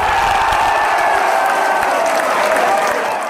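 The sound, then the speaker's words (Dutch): A loud, sustained roar of cheering and applause from a large crowd celebrating a football goal, steady and dense throughout without pause. “En dat was een goal.”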